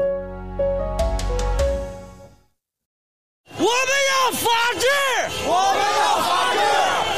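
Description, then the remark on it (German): A short musical jingle fades into a second of silence, then a large crowd of protesters on the streets of Beijing, holding blank white sheets against censorship, loudly chants slogans for freedom in unison, voices rising and falling in a steady rhythmic cadence. “Wir wollen nicht eingesperrt sein, wir wollen Freiheit, schreien diese Menschen auf den Straßen von Peking.”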